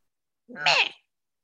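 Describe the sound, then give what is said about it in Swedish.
A human voice imitates an angry screech of rage: one short, shrill, cat-like cry, fairly loud, rising and then fading within about half a second, with silence before and after. “Alltså att jag typ skri skriker av vrede.”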